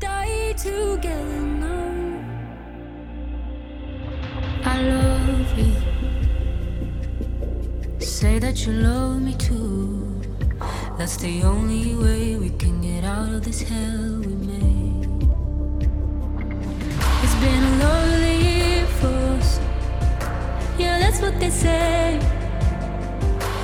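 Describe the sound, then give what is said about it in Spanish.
A pop song, Greece's entry for the Eurovision Song Contest in Turin, plays loud throughout, with a sustained melodic vocal line gliding over steady bass and synth layers, building in intensity toward the end. “el tema final que representará a Grecia en el Festival de Eurovisión.”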